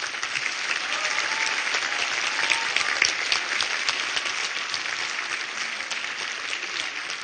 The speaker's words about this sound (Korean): 우리 일어나실 때 우리 다시 한번 큰 박수로.